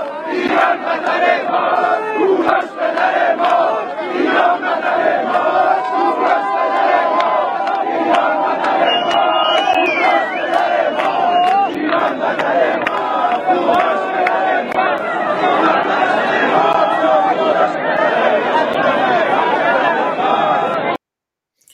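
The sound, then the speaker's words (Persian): A large crowd gathered at Pasargadae, Iran, to commemorate Cyrus on 7 Aban 1395 chants slogans such as "Cyrus is our father, Iran is our homeland" loudly in unison, voices rising in rhythmic shouted phrases over constant dense babble, sustained for about twenty seconds before cutting off abruptly. “جمعیت فریاد میزدند کوروش پدر ماست، ایران وطن ماست.”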